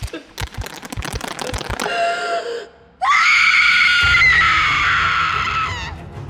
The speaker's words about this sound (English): Halloween is just around the corner, and to honor that special day, I thought it would be best if I ended on a scream.